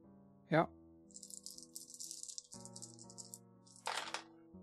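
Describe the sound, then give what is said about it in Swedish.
Dice are rolled in a game as a player pushes a roll, rattling and clattering across a surface in a quick burst of small hard clicks, a louder clack at the start and another flurry near the end, with low background voices underneath. “Jag slog en etta och eh, var massa skit på de andra tärningarna så jag pressar det.”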